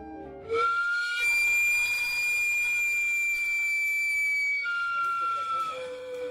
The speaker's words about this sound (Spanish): ¿Cuántas veces sentiste que te quedabas sordo con el silbido del carrito de camotes? Aunque cada vez son menos los camoteros que andan por la ciudad, el sonido de su chimenea forma parte de sonidos distintivos de la capital de nuestro país.